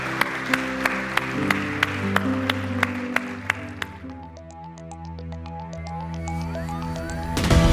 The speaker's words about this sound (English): Can we give these four individuals a huge round of applause this morning? Yeah, what an awesome moment.